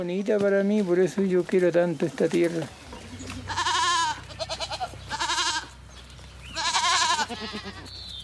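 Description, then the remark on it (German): A man speaks briefly, then goats on a farm bleat in several loud, wavering calls separated by short pauses, with a low rumble and faint farmyard background underneath. “Der 78-jährige Lorenzo Sandon hält Schweine, Hühner und Ziegen.”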